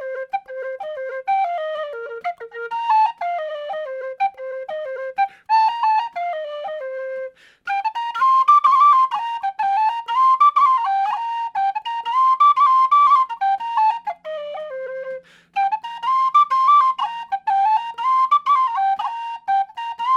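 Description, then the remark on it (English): The reel Swallowtail, in Robin's setting from a collection published around 1933, played on a keyed uilleann pipe chanter, bright reedy notes running in quick ornamented phrases with brief pauses between sections, steady and fairly loud throughout with no talking. “This is a really cool tune though, especially for somebody that's kind of new to having a keyed uilleann pipe chanter.”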